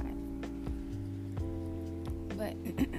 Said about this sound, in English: And if you hear the noise in the background, that's my fan